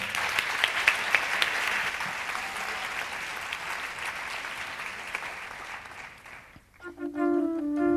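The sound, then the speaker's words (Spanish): A room full of people applauds steadily for several seconds, the clapping dense and fairly loud before thinning out, then sustained notes from a medieval portative organ take over, played by a performer who sings while playing. “Un aplauso para”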